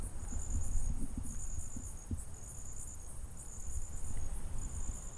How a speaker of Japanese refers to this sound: えー、今夜中なんですけども僕は家の前の森に来ております皆さん聞こえますかこの虫たちの鳴き声が